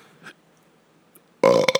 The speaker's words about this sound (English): I apologize for the burp I just let.